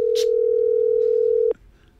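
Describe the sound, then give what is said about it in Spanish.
A steady telephone tone hums unbroken for about a second and a half, loud and clear, while a call is being placed, then cuts off with a click, leaving faint background hiss. “A ver, estamos llamando, ¿eh? Pitos en antena. Pitidos, quiero decir, perdón.”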